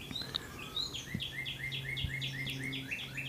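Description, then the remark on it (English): Birds chirp and sing outdoors, one bird repeating a quick, rhythmic series of bright two-note calls while others twitter around it, with a low steady hum beneath. “The birds are going to town.”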